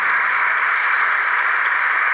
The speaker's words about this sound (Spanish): Vamos a darle un aplauso al Señor por ellos.